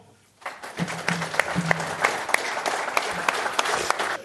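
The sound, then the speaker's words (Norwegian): Applause from an audience welcoming the evening's second guest onto the stage starts abruptly after a brief silence and continues steadily, a dense wash of many hands clapping with occasional sharper claps standing out. “Ta vel imot og stor applaus”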